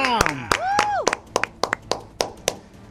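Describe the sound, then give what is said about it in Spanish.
Scattered hand claps ring out sharply and unevenly, about a dozen over a few seconds, with a wavering vocal cry or whoop early on and a low murmur of voices underneath. “Los que aplaudieron fueron los huevones holgazanes de este país que no les gusta trabajar los lunes.”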